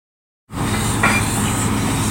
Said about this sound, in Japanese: インドネシア・サルーラ、地熱発電の蒸気の音。その蒸気は水に帰り、地中深く戻っていく。